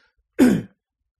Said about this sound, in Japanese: 始める前にあの咳払いします。